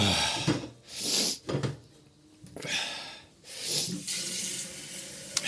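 Water runs from a tap in uneven bursts, hissing and splashing into a coffee machine's water tank as it fills, with short pauses between pours. Moderately loud, no voices.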